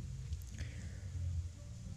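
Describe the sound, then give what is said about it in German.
Steady, continuous heavy rainfall with a constant wash of noise and a deep, rumbling undertone, fairly soft overall and with no voices. “Ja, aktuell regnet es bei mir. Ganz schön heftig sogar.”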